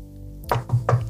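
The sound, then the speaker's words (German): Three quick knocks on wood, hollow and thumpy with a low resonant body, evenly spaced over about a second above a steady low hum, with no voices. “kurz auf Holz klopfen, Entschuldigung.”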